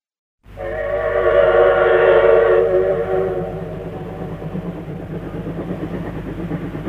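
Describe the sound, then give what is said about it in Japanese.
A steam train's shrill, layered whistle blows for about three seconds over a low rumble, then gives way to the steady rhythmic chugging of the train rolling on. No voices. “7時30分博士は汽車に乗った”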